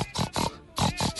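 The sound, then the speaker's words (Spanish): A person imitates a mother pig singing to her piglets with a series of short, rhythmic grunting oinks, six quick nasal bursts in two groups separated by a brief pause, fairly loud. “Eso es un canto de madre cerdo.”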